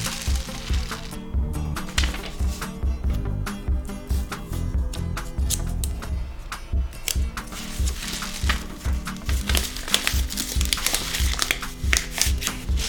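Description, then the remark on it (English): Paper crinkles and crumples continuously, with dense irregular crackling and crushing noises from steady handling as paper is sealed over the other end of a homemade rain stick tube filled with rice, fairly loud with no talking. “All right, now that I got the rice in there, I'm gonna seal the other side.”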